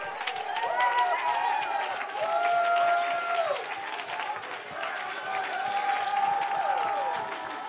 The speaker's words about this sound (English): You know why I'm clapping my hands? The Bible says to clap my hands and to lift my voice and to talk in tongues and to dance and to leap.